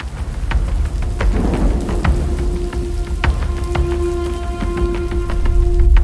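Heavy rain pours steadily, with sharp drops spattering over a deep, continuous rumble of thunder. No voices, just the storm throughout.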